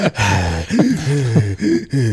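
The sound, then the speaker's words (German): Someone gasps for air after holding their breath, several loud, voiced heaving breaths in quick succession, with no talking. “mein Gott, Junge, wie lange kannst du dir die Luft nicht anhalten?”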